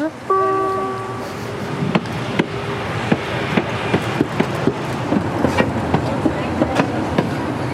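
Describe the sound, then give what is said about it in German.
A small park railway train gives a brief tonal whistle, then rumbles in with a steady, regular clack of wheels over rail joints beneath continuous mechanical noise. “So, Zug fährt vor.”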